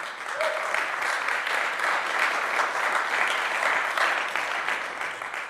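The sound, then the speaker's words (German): An audience applauds Jesus steadily for several seconds, a dense, even wash of many hands clapping at a constant loud level with no voices standing out. “Geben wir Jesus einen Applaus.”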